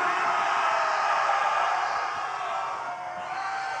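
A crowd of women in a concert audience screams together in a sustained, high-pitched roar that fills the whole space, loud and continuous, with no pauses or individual voices standing out.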